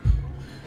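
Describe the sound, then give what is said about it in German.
A single dull, fairly soft thud as served drinks, a café con leche and a cola, are set down on a table, followed by silence with no one speaking. “Alles, was ihr hört, ist das Hinstellen.”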